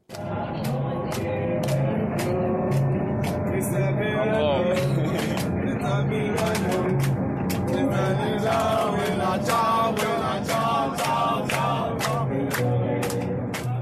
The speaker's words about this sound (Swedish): Ja, de hörde ju såklart, eller de sjöng ju såklart eh, Bella Ciao, en gammal podcastfavorit, den där partisansången från andra världskriget om att ge sitt liv för friheten.